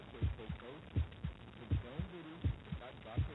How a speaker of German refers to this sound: Das ist ein Herzschlag, oder?